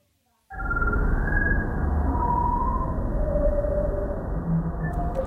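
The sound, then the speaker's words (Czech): A sonification of the Pillars of Creation nebula image, a region inside the Eagle Nebula in the constellation Serpens: a dense, rumbling drone starts abruptly after a brief silence, with thin wavering tones drifting over it at steady loudness and no voices. “Já jsem teď z těchto těch ukázek, které už jsou veřejné, vybral třeba zvuk pilířů stvoření, což je taková oblast uvnitř orlí mlhoviny v souvězdí hada.”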